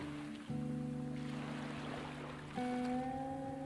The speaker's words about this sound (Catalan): Arriba una onada